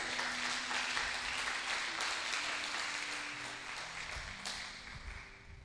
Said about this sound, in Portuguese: Se você crê nisso, dá uma salva de palmas, Jesus.